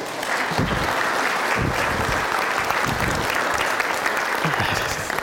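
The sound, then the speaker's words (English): Sustained applause from a church audience welcoming new communicant members, a dense steady clatter of many hands clapping that holds at an even, loud level throughout without fading. “Okay, so please give them both a round of applause.”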